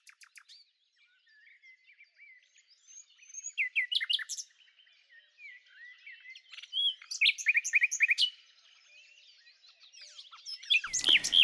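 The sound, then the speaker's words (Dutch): A nightingale sings alone in rich, varied phrases of whistles, trills and sharp chirps, with louder bursts coming and going and a brief rustle at the very end. No one speaks. “En toch nog maar even weer de nachtegaal en de koekoek.”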